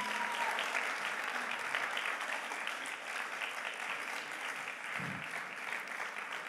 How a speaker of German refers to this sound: Ist das nicht genial, so eine Band zu haben? Komm, lasst uns ihnen einfach mal einen Applaus geben.